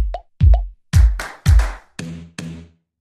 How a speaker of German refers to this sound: Ja, ich höre jetzt komischerweise den Ton vom Intro nicht mehr, aber ich meine, den müsstet ihr gehört haben, aber das ist auch jetzt halb so wild.